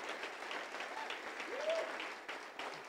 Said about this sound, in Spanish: Podemos dar un aplauso a todas las mujeres de oración.